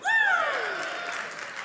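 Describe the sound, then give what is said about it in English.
A crowd bursts into steady applause, opening with a loud falling whoop of cheering that quickly gives way to a dense wash of clapping continuing at an even level. “Starting to sound like, uh, I don't know, like a TED talk or something where everybody's prepped to cheer.”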